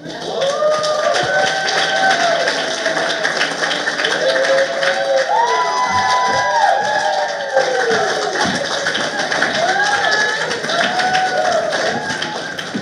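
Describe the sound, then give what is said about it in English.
A crowd at Barnes & Noble Union Square applauds and cheers as authors Christine Pride and Jo Piazza are welcomed: dense clapping holding steady and loud throughout, with scattered whoops and rising shouts from many voices layered on top. “Barnes & Noble Union Square, please give a warm welcome to Christine Pride, Jo Piazza, and Miwa Messer.”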